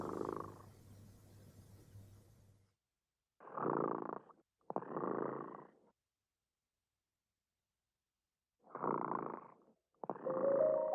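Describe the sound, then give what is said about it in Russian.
The cat Remota purrs in steady rumbling waves, each breath making a separate burst with short quiet gaps between, after a brief stretch of softer low rustling at the start. “Кот Ремота сладко спит, Песенку свою урчит.”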